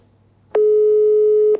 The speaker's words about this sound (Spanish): Vamos a llamarla y el teléfono ya está sonando. Bueno, bueno, a ver si nos lo coge.